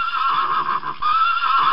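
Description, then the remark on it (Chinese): A horse, struck hard on the rump with its rider's whip, neighs loudly in pain, a shrill, wavering whinny that holds for nearly two seconds, dips briefly midway, then surges again as it bolts forward. No one speaks. “马儿吃痛，不顾一切的向前狂奔。”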